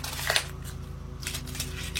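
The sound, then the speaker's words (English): A new, crisp sheet of paper is crumpled, producing several irregular crackling bursts over a steady low hum, with no one speaking. “sometimes when I talk to clients about trust, I give them a piece of paper. This piece of paper is new, it's fresh, it's crisp.”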